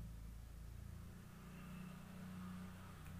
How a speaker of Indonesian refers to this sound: Eh, ada motor lewat kedengeran gak sih?